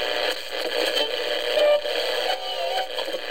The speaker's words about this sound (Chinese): 喝上一杯暖融融的奶茶，在这个午后纯净时光，打开收音机，旋转调频。